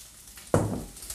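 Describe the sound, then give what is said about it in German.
A sudden watery swish, then a sustained churning slosh as basmati rice is stirred in a bowl of water, moderately loud and fading slightly, with no voices. “Ein bisschen herumrühren. Ihr werdet es gleich sehen, das wird total milchig.”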